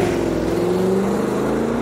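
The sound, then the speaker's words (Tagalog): A truck's heavy engine roars, its steady drone shifting slightly in pitch as it accelerates away for a couple of seconds, with no voices present. “Mabilis akong sumakay sa passenger seat at sinenyasan ko ang driver na paharurutin ng truck papalayo.”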